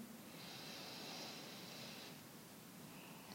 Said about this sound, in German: Und dann atme noch einmal ganz tief ein